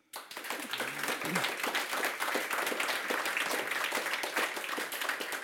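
A crowd bursts into steady, sustained applause, dense overlapping claps rising quickly and holding at an even, fairly loud level, with a few faint voices mixed in underneath.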